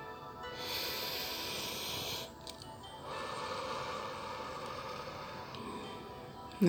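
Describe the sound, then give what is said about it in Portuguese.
A slow, deep breath: a long airy inhale lasting a couple of seconds, a brief pause, then a longer, softer exhale, clear with no talking. “Mais uma respiração profunda agora.”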